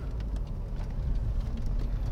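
Steady low rumble of a car interior with the engine running, a constant muffled drone filling the low end with faint higher hiss above, no voices.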